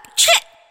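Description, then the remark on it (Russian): A child sneezes once, a quick, sharp, breathy burst that is fairly loud, with no talking around it and a faint tail fading out afterward. “Чихание – это очень важный процесс, и правильно, что ты чихаешь.”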